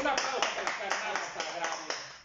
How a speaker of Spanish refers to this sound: A ver, a ver, que se escuchen en el micrófono el aplauso que estamos haciendo esta noche.